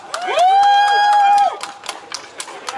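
An audience claps and cheers for a speaker being introduced, the applause lively, with a loud, sustained whistle rising over the crowd early on before the clapping thins into scattered claps.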